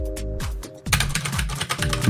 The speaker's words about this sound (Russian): Скажи, что ты печатаешь на клавиатуре? Я-то вижу, что это ты.